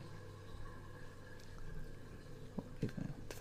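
A dishwasher runs with a steady low mechanical hum, and near the end a few short bursts of water sloshing and splashing rise above it.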